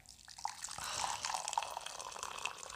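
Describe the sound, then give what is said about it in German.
Mulled wine pours into a cup in a steady stream, a continuous splashing trickle with a few brighter gurgles, heard on its own without any voices. “Oh, was für ein tolles Geräusch. Das sieht ein bisschen an wie Pipi.”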